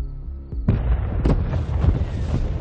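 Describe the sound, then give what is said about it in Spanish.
Several heavy explosions at a military base in Berlin, Germany, at night boom one after another, each a sharp blast trailing into deep rumbling and crackling debris, following a brief low mechanical hum at the start. No one speaks. “Se producen varias explosiones en una base militar.”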